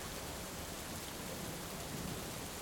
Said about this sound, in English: As you're breathing here, maybe start to open your ears and take your awareness towards the sound, sound of the rain.